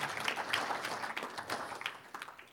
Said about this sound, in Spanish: Un aplauso a los traductores que están haciendo un trabajo excelente.